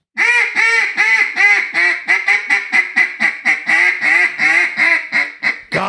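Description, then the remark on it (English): A duck call blown loud in a rapid, steady run of about twenty quacks, the tone shifting from fine to coarse to boss, from clean to raspier, with no talking. “So this is this is fine to coarse to boss.”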